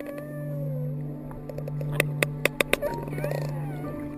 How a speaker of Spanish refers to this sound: Ahora escuchemos el sonido de un cachalote.